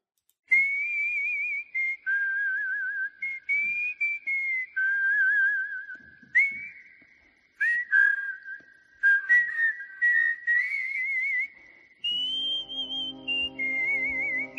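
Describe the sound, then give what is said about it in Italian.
A person whistles a jaunty opening theme tune, a continuous melody of held, wavering notes and quick steps lasting over ten seconds, with a brief low buzzy sound joining near the end. “Potremmo fischiarla noi.”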